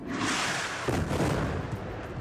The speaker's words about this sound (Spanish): El sonido de las bombas se ha seguido escuchando en la franja esta mañana y esta noche y después el de las víctimas y sus familias, que lloran a los heridos y a los fallecidos.